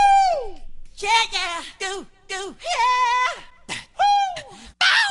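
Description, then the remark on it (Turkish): A voice imitates a singer's signature yelps and shouts: a rapid string of short, high, sliding vocal cries and whoops, loud, with brief gaps between them and no other sound. “Dans kültürüne kazandırdığı ilginç motifleri, işte lügatımızı lügata dahil ettiği değişik bağırış çığırış seslerini zaten biliyoruz.”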